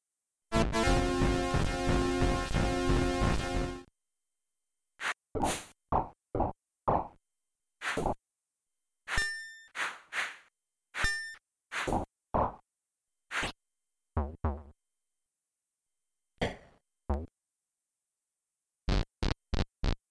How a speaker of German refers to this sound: von einem kompletten Kampf, der allerdings jetzt relativ schnell auch endet durch Kopfabschlagen, und zwar von der einleitenden Fanfare bis zum tödlichen Kopf ab und dann dem Gnom und seinem Lachen und der Siegesfanfare am Schluss. Das klingt so.